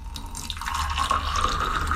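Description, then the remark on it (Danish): Hot water pours steadily into a cup, a continuous splashing stream whose pitch climbs as the cup fills, with no one speaking. “Så hælder vi øh, en, øh, en anden kop.”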